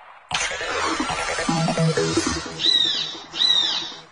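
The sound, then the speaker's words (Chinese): A finless porpoise call: a long, buzzy, harmonic cry that wavers in pitch, then two short, high squeaky chirps in quick succession. It is fairly loud, with no talking over it. “遇上麻烦的动物是一只江豚。”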